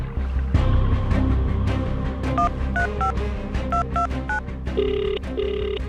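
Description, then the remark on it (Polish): Colleagues of a skier trapped under ice dial a phone number to call for help: a quick series of short, steady DTMF tones, each a bright two-pitch beep, followed by two longer tones, over a low rumbling background. “Koledzy narciarki dzwonią po pomoc.”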